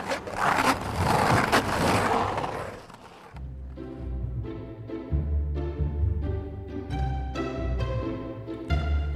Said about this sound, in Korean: 이 스케이트보드는 확실히 젊음이 더 느껴지는 것 같아요. 날씨 맑은 날 공원에서 하늘로 솟구칠 듯이 미끄러졌다가 쫙 올라가는 거 보면 야참 부럽다 그랬는데 물 참 제비 같다 멋있기도 하고 뭐예 곧 봄이 오면 많이 보겠네요 스케이트보드 소리 오늘의 소리로 만나봤습니다.